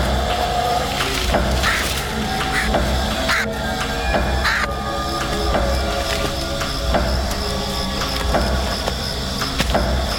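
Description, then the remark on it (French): Birds that have eaten the breadcrumbs cawing, harsh repeated crow-like calls overlapping in a dense, steady chorus that fills the whole stretch at a fairly loud level, with no talking. “Les oiseaux ont mangé les miettes.”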